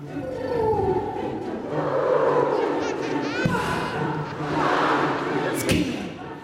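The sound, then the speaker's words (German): A large live audience at the John F. Kennedy Center in New York in 2017 sings along together with a performer, a dense wash of many voices filling the space at steady volume, with occasional thumps and a brighter swell near the end. “wie etwa dieser Auftritt im New Yorker John F. Kennedy Center 2017 beweist, als das Publikum mit einstimmte.”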